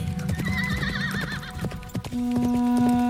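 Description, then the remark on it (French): A black horse ridden by Lady Esther Stanhope gallops across the desert with rapid, rhythmic hoofbeats, then lets out a loud, wavering neigh, followed by a sustained steady tone as the hooves fade. Clear, no talking. “Sur son cheval noir, Lady Esther Stanhope galope à travers le désert.”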